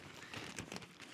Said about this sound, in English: I mean, the, the sound you hear is of an actual newspaper rustling.